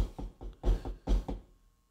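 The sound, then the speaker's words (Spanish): Someone raps on a door in quick bursts, about six sharp knocks in an uneven rhythm, clear, then it goes quiet. “Y en el momento que yo les dije eso, tocaron la puerta.”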